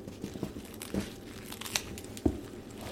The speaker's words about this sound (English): Lettuce leaf. Slight wilt, semi fresh.